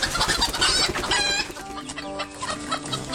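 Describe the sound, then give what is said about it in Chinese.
Four roosters on a farmer's chicken farm in Qiannan, Guizhou, China, cluck loudly over one another in a dense, agitated burst as they attack an eagle that swooped on a chick, caught on a surveillance camera. Harsh, high squawks dominate the first half, then a steadier stream of overlapping clucks follows, with no talking. “在四只大公鸡的围攻下，老鹰被反杀，是吧？”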